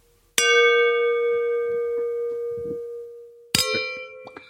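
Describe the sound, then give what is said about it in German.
Two crisp clinks of filled wine glasses touching in a toast, about three seconds apart. Each one rings on with a long, pure, bell-like tone that slowly fades. It's clear, with no talking. “Das hört überhaupt nicht mehr auf zu klicken. Geil, das mache ich nochmal.”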